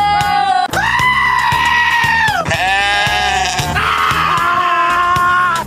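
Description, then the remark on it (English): A series of loud, drawn-out goat bleats used as a segment-opening sound effect, about four in a row, each a wavering nasal cry with slight pauses between, unaccompanied by talk. “Our goats of the week. Let's hit the open.”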